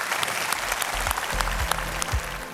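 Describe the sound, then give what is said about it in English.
A church audience applauds steadily for people who have just made a decision for Jesus, a dense wash of clapping from many hands at moderate volume, with a few low thuds beneath and no one speaking. “Let's give all those people that made that decision for Jesus a big hand.”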